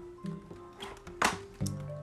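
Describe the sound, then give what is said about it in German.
Water flows down with a short splashy gush midway, over a steady low hum and a few soft squelching taps, fairly quiet. “fließt ja das Wasser hier runter.”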